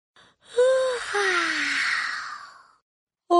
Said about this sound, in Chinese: 唉，哈欠云一边打着哈欠，一边带着它们飞到了池塘边。青蛙、蝴蝶和鹅宝宝也开始打哈欠了。